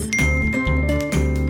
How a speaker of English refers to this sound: And that was a phone noise. Did not everyone hear it?